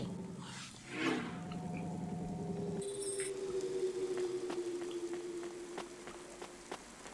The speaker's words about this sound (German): Es regnet immer noch.